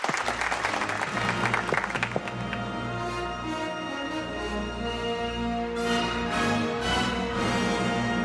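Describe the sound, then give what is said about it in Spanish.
Loud burst of crowd applause for the film expert of the show Desayuno con liantes, dense clapping strongest in the first couple of seconds, then thinning out beneath a sustained musical backing that carries on to the end. “Y ahora llega el momento de brindarle un aplauso fortísimo a nuestro experto en cine,”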